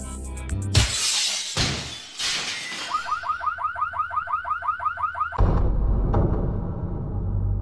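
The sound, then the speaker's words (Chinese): Thieves smash a car window at Ganquan service area on the Shenda Expressway around 6 pm: glass smashes loudly in a few harsh, crashing bursts, then a car alarm starts up with a rapid, repeating warble of rising chirps before more clattering noise and rumble take over. “市局接到报案，说是在我们的甘泉服务区一天发生两起砸这个汽车玻璃盗窃案。”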